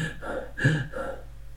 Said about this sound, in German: Du siehst halt erstmal ein Schwarzbild und hörst ein Atmen.